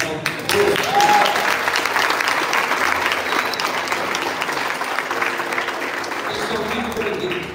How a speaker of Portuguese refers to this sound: Tem alguém primeira vez no culto? Levante a mão. Primeira vez. Dá um aplauso.